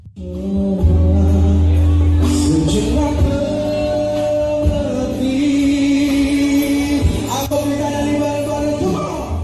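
A singer's sustained, melodic voice over full instrumental backing, performing live in a cafe before the COVID-19 pandemic, loud and steady throughout, with faint crowd noise in the background.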